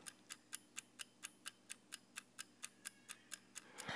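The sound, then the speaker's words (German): A mechanical kitchen timer ticks steadily, about four crisp clicks per second in an even rhythm, its small wheel swinging left and right, with no voices over it. “Man hört die Mechanik dahinter. Diese, dieses kleine Rädchen geht nach links und geht nach rechts.”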